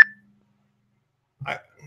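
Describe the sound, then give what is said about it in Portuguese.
A single short electronic incoming-call phone tone sounds at the very start and fades quickly, followed by over a second of silence and then a brief, muffled vocal noise. “Olha, era uma flor que ligou, agora sumiu.”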